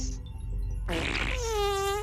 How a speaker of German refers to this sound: Im Weltraum sinken die Gase im Körper eher nach unten und der Astronaut pupst in seinen Anzug.